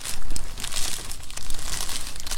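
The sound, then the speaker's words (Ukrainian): Continuous rustling and crinkling of cut paper slips being stirred and drawn out to pick the name of the next band, with busy irregular crackles over a couple of seconds and no voices. “Андрій нарізав тут папірчиків. Пропонує мені витягнути назву наступного гурту.”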